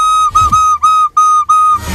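A black recorder plays one steady, fairly high note, blown about five times in a row with short breaks between. The tone is clear and loud, with no talking over it.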